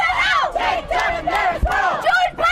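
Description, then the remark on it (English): A crowd of protesters supporting LGBTIQ+ people and women's rights shouts in loud, rhythmic bursts across the road from St Mary's Cathedral during Cardinal George Pell's funeral, voices rising and falling together in a chanting cadence, continuous with no single speaker standing out. “As the bells tolled in honour of the life of Catholic Cardinal George Pell, across the road from St Mary's Cathedral, another sound rang out.”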